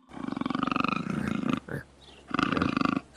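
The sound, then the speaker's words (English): A tiger growl sound effect: a deep, rumbling growl, loud, in two long rasping bursts separated by a short breathy pause, with no other sounds around it. “It's gonna be a tiger growl.”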